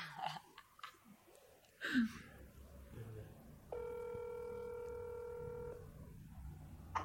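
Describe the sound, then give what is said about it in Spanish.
A phone call placed on speakerphone with the microphone held close to the phone: a few brief dialing beeps and clicks, then a single steady, buzzy ringback tone lasting about two seconds before cutting off, with faint rustling around it. “Entonces yo lo voy a llamar para decirle eso.”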